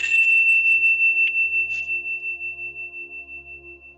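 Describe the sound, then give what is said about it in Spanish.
A tuning fork rings out after being struck, holding a clear, steady high tone with a gentle wavering pulse, plus a couple of faint taps early on. No one speaks. “y con el sonido del el diapasón. El día de hoy vamos a usar el diapasón.”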